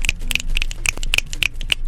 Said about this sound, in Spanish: Señores, unos aplausos radiofónicos para Pablo Extinto.